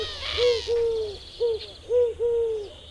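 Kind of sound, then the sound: bird, eurasian collared dove cooing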